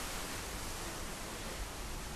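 A steady, dense roar of rushing water from a waterfall, heard close up from behind the falls amid flying spray, with a broad hiss filling the whole clip and no voices.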